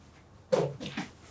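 A dog gives a sharp bark followed by a couple of shorter whining yelps, moderately loud, with no one talking over it.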